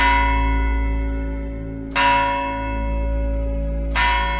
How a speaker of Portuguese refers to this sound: Este templo feito de um mármore branco de dois andares, exibindo claramente o sino do sol nascente à frente e um grande sino dourado na parte superior, também com esse símbolo. Então, esse sino começa a tocar.